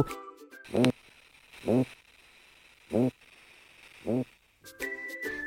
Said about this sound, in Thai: เขาพบว่า ปลานั้นสามารถเปล่งเสียงได้แตกต่างกันในสถานการณ์ต่าง ๆ ค่ะ เช่น ถ้ามันกำลังแย่งชิงอาหารกับปลาตัวอื่น ก็จะส่งเสียงสั้น ๆ คล้ายกับเสียงเห่า